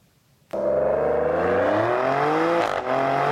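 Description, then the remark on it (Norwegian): A Maserati Grecale Trofeo, an Italian compact performance SUV, fires up abruptly and revs, its loud, throaty engine note climbing steadily in pitch, with a brief dip near the end before it picks up again. No one speaks. “Det er en Maserati Grecale Trofeo.”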